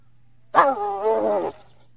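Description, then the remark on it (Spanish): A single hyena call, loud, lasting about a second: a bright, harmonic cry that swells quickly, wavers in pitch, then cuts off, with a faint low hum underneath. “¿Eso es como una hiena?”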